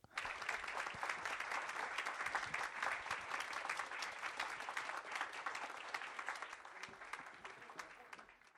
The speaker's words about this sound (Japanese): ゲストのお二人に、えーと、とご退場願いたいと思いますので、最後に皆様大きな拍手でお見送りくださいませ。